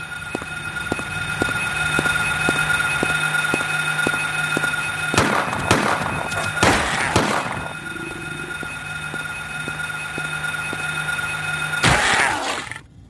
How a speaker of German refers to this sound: denn wann immer sich ein Gegner in deiner Nähe befindet, fängt dieses Radio an zu rauschen